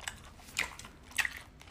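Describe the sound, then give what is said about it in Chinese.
Wet, crunchy bites into a juicy, uncut sausage, two sharp crisp bursts about half a second apart with soft chewing between them, no talking. “来一口香肠，哇，多汁，没有切的香肠”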